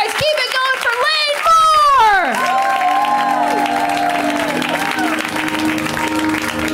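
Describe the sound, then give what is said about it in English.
A show audience bursts into loud applause and cheering to welcome a performer on a first appearance on the show on Halloween, with high-pitched whoops and shouts rising and falling at the start, then a steady wash of clapping and excited voices. “We give them a huge, warm welcome, right?”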